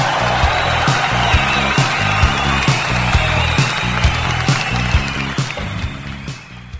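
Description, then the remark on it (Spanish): Steady, dense applause crackles throughout, layered over a thumping rhythmic low beat, holding its level before tapering off in the final second. “Ah, un aplauso, un aplauso.”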